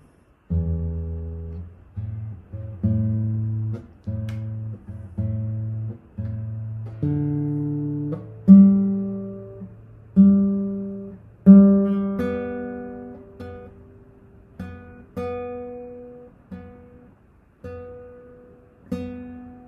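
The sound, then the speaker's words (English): Guitar strings are plucked one at a time and left to ring, over and over, as the pitches are adjusted during tuning. The notes are mostly low and moderately loud, with no talking. “I'm just gonna um, tune it up and play a little bit.”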